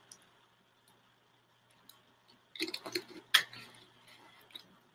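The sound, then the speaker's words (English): Quiet sounds of someone drinking water: a short cluster of wet sips, swallows and small clicks after a couple of seconds of near silence, with no talking. “let me grab some water here”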